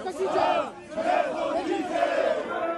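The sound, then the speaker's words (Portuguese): A crowd of football fans at an airport chants loudly in unison to welcome a newly arrived Colombian player, voices rising and falling in repeated rhythmic phrases, energetic, with general cheering noise underneath. “Na entrevista coletiva, fez questão de agradecer a recepção da torcida no aeroporto.”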